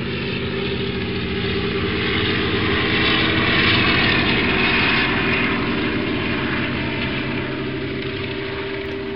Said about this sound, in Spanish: Voladuras antialudes, helicópteros sobrevolando el cielo y que dan servicio a las pistas de esquí